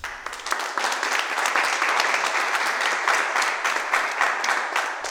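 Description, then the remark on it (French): A crowd applauds steadily for about five seconds, a dense, loud wash of many hands clapping at once with no voices standing out. “Applaudissements.”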